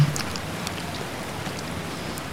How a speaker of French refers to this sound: Et pour que vous appréciez davantage, je vous mets un petit bruit de rivière.